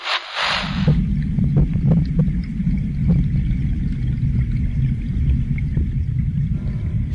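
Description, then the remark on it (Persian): Steady, low bubbling and gurgling of water in an aquarium, a continuous muffled rumble that holds fairly loud throughout, opening with a brief hiss. “چیزی نمیگه که صدای آب میاد فقط”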